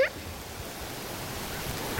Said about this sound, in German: Jetzt wird der Regen wieder weniger. das Moos saugt richtig die Wassertropfen auf.